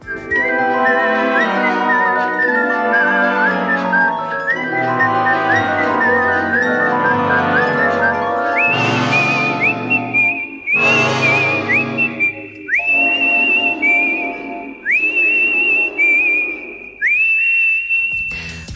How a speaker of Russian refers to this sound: мелодия, которую насвистывает героиня Дэрил Ханны в госпитале